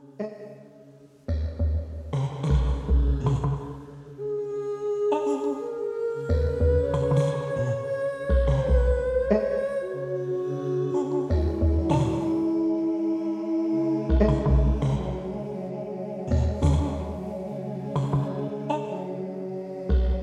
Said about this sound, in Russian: на территории компьютерного эдакого оформленного э, с игровой геймерской фантазии мегаполиса, где естественное эхо и вскрики заменили электронные звуки и приятное уху гудение.